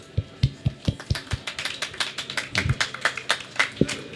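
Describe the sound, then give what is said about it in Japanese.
Audience applause at the Renovation Expo, a public B2C event hosted by a renovation council: a few hands clapping, sharp and irregular, quickly thickening into a denser patter of overlapping claps before thinning out again, with no voices heard. “はい盛大な拍手ありがとうございますありがとうございます”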